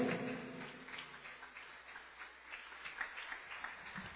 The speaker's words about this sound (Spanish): Dale un aplauso a Dios en esta hora, pero bien grande.